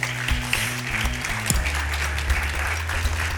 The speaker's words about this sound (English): You shared so much insight, and if we could give these guys a round of applause.